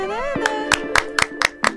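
Six sharp hand claps in a steady, even rhythm, each crisp and moderately loud, over a sustained melodic tone that glides briefly at the start.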